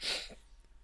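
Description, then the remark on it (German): A single sharp, loud sneeze bursts out, a hissy blast that fades quickly. “Gesundheit nochmal.”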